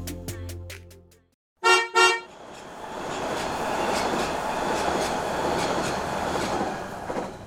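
A subway train rumbles through a tunnel with a steady, loud roar, after a short tonal chime and two sharp horn blasts near the start. No one speaks.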